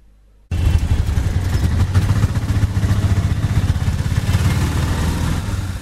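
Loud street traffic noise, heard through the thin window panes of a university lab in Florianópolis, Brazil, kicks in abruptly after a brief quiet moment, a throbbing engine rumble with a steady rattling pulse that continues without any voices.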